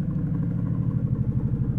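A low helicopter passes overhead, its deep rotor throb and engine rumble loud and steady, filling the whole moment with a heavy pulsing drone and vibrations, with no voices.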